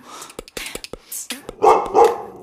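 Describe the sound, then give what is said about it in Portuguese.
A dog barks twice in quick succession, loud, after a few short clattering knocks and rustles. “Calma, Naná! Shh, Não faz barulho!”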